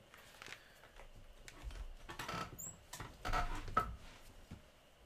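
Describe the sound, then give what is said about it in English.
A chair creaks and scrapes across the floor as someone gets up to fetch water, with scattered rustling, a couple of dull low thumps, and brief squeaks. It's fairly quiet, with no one speaking. “All right, sorry for chair sound.”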